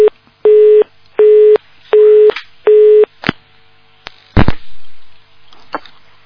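A telephone busy signal after a caller's call to a phone-in program drops: four steady, mid-pitched beeps in an even on-off rhythm, followed by a few sharp clicks and a brief rustle on an otherwise quiet line.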